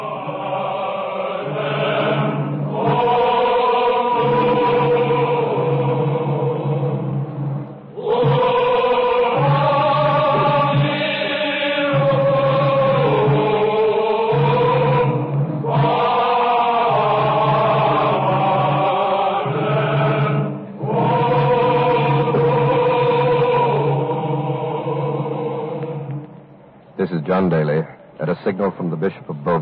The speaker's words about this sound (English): The monks, still chanting, are taking their places on the upper platform. The crowd is silent. Let's listen.